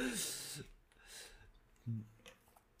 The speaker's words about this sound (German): ich nehme mal kurz einen Schluck Wasser. Oh Gott, das klingt ja furchtbar.